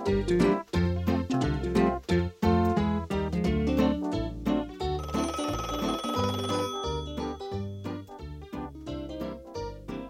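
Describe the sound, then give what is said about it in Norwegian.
A telephone rings in loud, repeated bursts that keep a steady rhythm for the whole stretch, with no voices. “Møtet som ikke frøken Elfenberg visste om, hadde jeg fått en telefon om kvelden før.”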